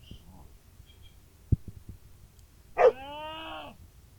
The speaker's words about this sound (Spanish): Un perro.